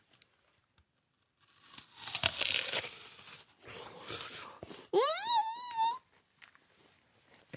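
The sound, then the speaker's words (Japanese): Crisp crunching as someone bites into a red Akibae apple and chews for a couple of seconds, followed by a short rising, appreciative hum from a voice. “食べるとシャキッとしてますからね”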